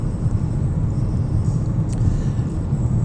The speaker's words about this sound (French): Donc, circulation quand même raisonnable, euh, raisonnablement fluide en ce moment. Euh, je suis à 99 km/h dans la voie rapide, euh, mais ça, ça ne durera pas longtemps.